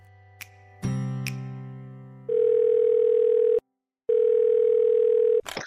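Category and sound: signal or alarm, telephone dial tone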